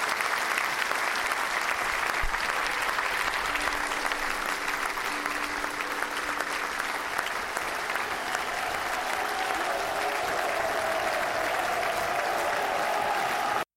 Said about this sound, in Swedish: Jubel. Jubel.